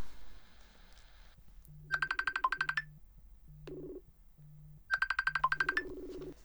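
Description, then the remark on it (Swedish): A phone call-back rings out on the caller's end over a poor wifi connection from Thailand: two bursts of a bright warbling melodic ringtone over a steady low pulsing ringback tone, with no talking. “Jag ringer upp. Vänta.”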